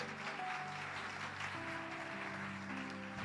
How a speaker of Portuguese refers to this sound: Vamos aplaudir a Jesus mais uma vez?